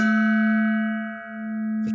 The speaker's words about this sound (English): a gong sounded, and this gong was no ordinary gong. This magical gong, this magical Hong Kong gong by the Walla Walla Bing Bong.